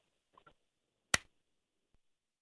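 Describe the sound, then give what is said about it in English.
One sharp hand clap rings out on its own, preceded by a couple of soft ticks and followed by a faint click in otherwise quiet surroundings. “And this one's the clap?”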